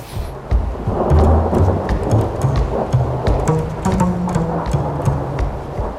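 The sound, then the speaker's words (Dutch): Low thunder rumbles steadily beneath a dense wash of heavy rain, with sharp crackling bursts scattered throughout. The storm stays loud for the whole stretch, and no one speaks. “terwijl overal om hem heen steeds dat onweer inslaat.”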